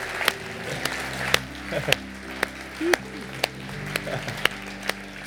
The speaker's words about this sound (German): geben euch selber mal einen Applaus und sagen, du kannst es.